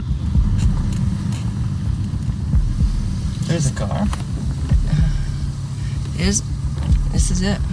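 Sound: car driving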